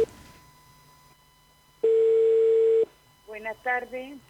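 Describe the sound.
A steady, loud telephone dial tone of an outgoing call sounds for about a second on a single mid pitch, then cuts off; afterward a person begins speaking.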